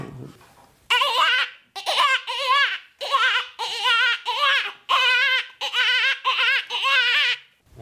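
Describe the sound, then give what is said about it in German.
An imitated dying-hare distress call used as a hunting lure, made by hand or with a lure instrument: a series of about eight high, wavering, plaintive squeals in quick succession, loud and baby-like, with no talking over them. “Wie macht man einen sterbenden Hasen? Wie man den macht. Und da gibt es ein Lockinstrument oder man kann ihn mit der Hand machen.”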